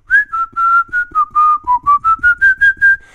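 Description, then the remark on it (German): A person whistles a simple melody, a clear run of about a dozen short pure notes rising and falling in a steady rhythm, with no talking. “Also so wie ich jetzt pfeife, also ich kann jede Melodie, die ich mir denke, kann ich pfeifen, ne?”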